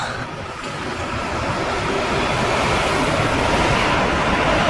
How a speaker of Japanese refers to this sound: 電車うるさいですね。線路沿いまで戻ってきたからうるさい。